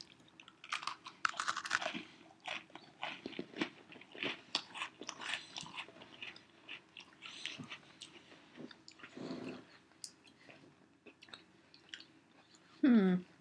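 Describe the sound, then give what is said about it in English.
Crunchy chewing of Oreo cookies, with rapid irregular crackles and mouth noises repeating throughout, ending in a brief louder sound. “I'm just gonna chow down.”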